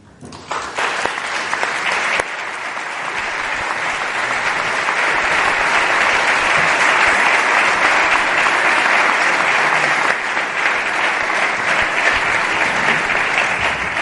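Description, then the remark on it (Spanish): Warm, sustained applause from an audience welcoming a brother of the brotherhood, during Holy Week (Semana Santa) in Puente Genil. It builds quickly after a brief start and holds steady as a dense wash of clapping for over ten seconds, with no voices over it. “sube a este tu tren para recibir un caluroso aplauso de todos nuestros viajeros.”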